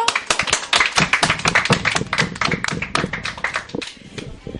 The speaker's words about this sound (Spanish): Muchísimas gracias. ¿Alguien más quiere contar alguna experiencia? Pues un fuerte aplauso.